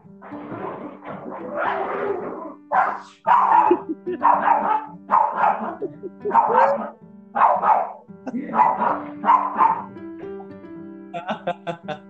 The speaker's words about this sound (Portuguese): os cachorros querem aparecer. Eu tô, eu tô vendo.